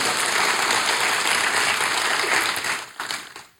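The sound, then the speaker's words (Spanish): A church audience applauds the Lord together, a dense, steady wash of many hands clapping at full loudness for about three seconds before thinning out and fading away. “¿Podemos darle un aplauso al Señor porque esto se hace realidad a nosotros?”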